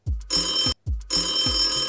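A telephone rings twice in quick succession, each loud, bright, rattling bell burst lasting under a second, with a brief pause between them and no voices.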